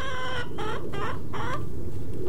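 A hen named Roxy, recovering from a possum attack, clucks and calls out as a person walks away from her, in a run of four loud, harmonic squawks, each roughly a third of a second long, over a steady low background rumble.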